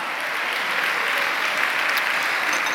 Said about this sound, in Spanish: Dale un aplauso a Cristo, hermano, a su nombre, gloria.